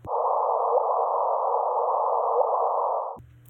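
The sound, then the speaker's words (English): A sonified gravitational-wave signal from two black holes merging, released by LIGO: a loud, steady electronic tone holding for about three seconds before cutting off abruptly into a faint low hum. No one speaks. “I'm going to pause right here and say we actually went back and found the real clip released by LIGO of two black holes merging, and this is what it sounds like.”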